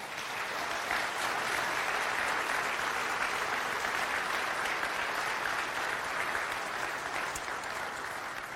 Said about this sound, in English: This is my favorite event that we do here at Tulare Community Church, and it's because I love my city and I respect the heck out of what our Tulare Police Department does for our community. Would you guys give them one more round of applause?